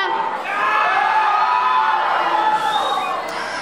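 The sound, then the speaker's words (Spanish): A large group of children shouts and cheers together for fencing in one sustained, loud burst of overlapping voices, a vote for which sport gets a backpack gift, filling the space for several seconds before easing off slightly. “Grito por esgrima.”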